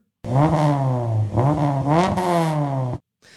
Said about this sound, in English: Now, in addition to the style of the engine, the number of cylinders obviously plays a huge role in the melody of an engine. An inline four cylinder